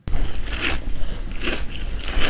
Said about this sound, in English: Oh, that's like soggy. That's like frosted mini wheats. You can you can hear the sog.